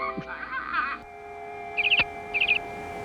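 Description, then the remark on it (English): A bird whistles twice in quick succession, each burst a short run of about four bright, high chirping notes over a steady low hum, preceded by a softer warbling tone. “Um it sort of goes it whistles at you a couple times.”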